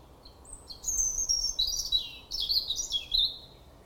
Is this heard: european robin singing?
yes